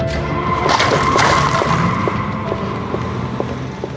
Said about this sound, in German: Regen. Nachts.